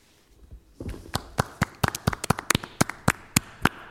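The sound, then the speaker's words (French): Scattered applause from a small group breaks out after a brief hush, sharp distinct claps coming quickly and unevenly for a few seconds, fairly crisp, with no voices. “applaudissements chaleureux et nourris.”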